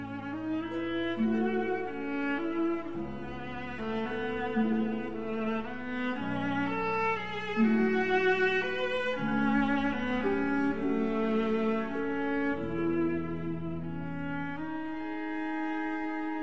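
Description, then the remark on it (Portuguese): A sustained orchestral passage from the second movement of a symphonic work by a German composer, with a lyrical melody carried over rich held chords, moving in slow, smooth changes at a steady moderate loudness, with no voices. “nada mais justo do que incluir um trecho em formato parecido, desta vez no segundo movimento da obra O Canto do Cisne, do alemão Paul Hindemith”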